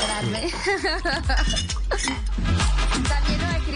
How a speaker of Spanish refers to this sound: está preocupante tanta sonido de hielo y de servir, o sea, me está dando sed, esto está grave